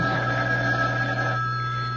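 A telephone rings steadily and loudly for two seconds, a continuous electronic bell tone with a low hum beneath it, no voices present.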